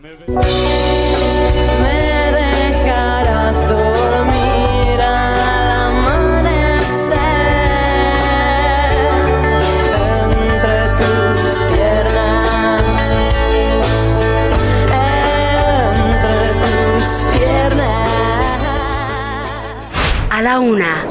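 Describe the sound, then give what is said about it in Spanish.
A loud, full-band acoustic rock song recorded live at an unplugged concert, with steady bass and layered harmonic instruments, playing continuously before cutting off abruptly near the end. “de los mejores discos On block que se hayan grabado en este concierto de … para MTV. Escuche.”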